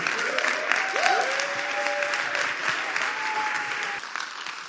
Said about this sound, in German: Ja, lasst uns einfach aufstehen. großen Applaus.